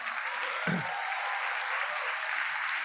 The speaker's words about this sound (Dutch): Zijn mensen klaar voor de gunst van God? Halleluja. Geef God een heel groot applaus.